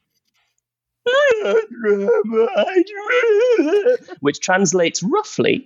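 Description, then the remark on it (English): After a moment of silence, a person voices a wavering, whimpering Diplodocus dinosaur call for about three seconds, fairly loud, then laughs and briefly speaks. “Hold on, uh, and in my best Diplodocus, I will just shout out um, to uh, what does that sound like,”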